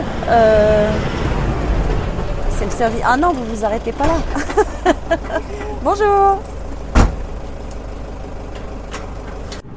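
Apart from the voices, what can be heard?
car passing by outside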